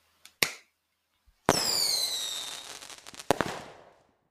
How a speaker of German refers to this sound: Warte mal, ich klatsch mal. Himmel. Ich klatsch mal, ja? Ja, mach mal.